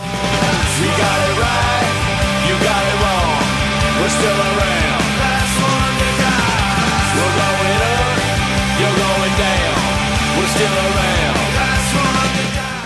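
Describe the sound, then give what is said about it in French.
A loud, dense punk rock song plays with driving distorted guitars, steady pounding drums and a shouted lead vocal, at full energy and unbroken level from start to finish. “Et voici quelques-uns de leurs plus grands tubes.”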